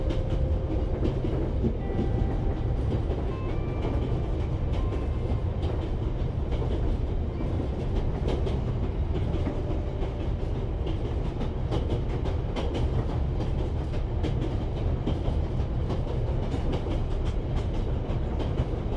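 A train on a long-distance journey rolls steadily along the rails, a dense low rumble with repeated clickety-clack beats and faint metallic squeals, continuous and fairly loud with no voices.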